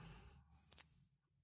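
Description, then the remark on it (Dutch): A single thin, high-pitched bird call, about half a second long, sounds once, clear, sliding slightly downward against an otherwise quiet background; a call that birders hope to hear in gardens after dark in late September and early October. “Dat was een hele korte, hè? Ja, het klinkt heel iel.”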